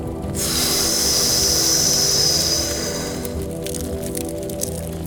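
A long, steady hissing exhale pushed through clenched teeth lasts about three seconds, bright and sibilant, then fades into faint background noise with a few soft clicks.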